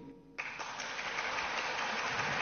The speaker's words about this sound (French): Une nouvelle accueillie par de longs applaudissements et une émotion perceptible.